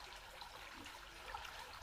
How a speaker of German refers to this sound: Und es existiert immer mehr und mehr nur dieser Moment und das Plätschern des Wassers. Und dieses Plätschern, Fließen breitet sich nun immer mehr aus